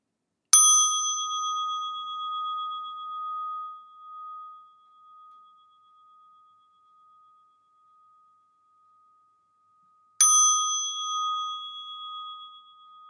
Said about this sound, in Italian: Ascoltiamo tre suoni di campana per iniziare.